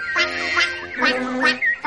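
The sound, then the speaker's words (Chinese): Frogs croak in four loud, nasal, honking calls that come in two quick pairs, each harsh and buzzy with a rich tone. No voices are heard. “啊哈，那是青蛙的叫声。”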